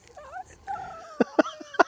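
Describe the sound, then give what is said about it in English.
A dog whimpers and whines in high, wavering tones, then lets out three short, sharp yips in quick succession, out on a deck, with no talking. “I got the dogs out here with me on the deck.”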